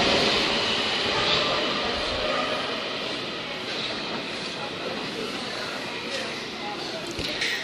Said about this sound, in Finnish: hyvä esimerkki siitä taas, että ei tarvitse juosta, vaikka metro tuosta silmien edestä meni. Olemme siis Rautatientorin metroasemalla ja juuri edestämme meni uuden avatun kokopituisen metrolinjan toinen linjaosa Mellunmäki-Tapiola.